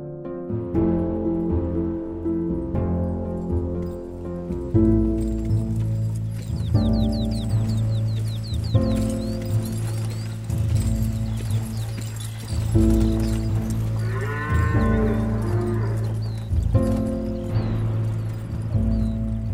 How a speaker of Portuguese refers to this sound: Então, to todos vocês é, embarcam na carroça de Gundren, com, puxado pelos dois bois, e partem em direção ao nordeste, bem ao sul da floresta de Neverwinter e bem ao norte das montanhas da Espada.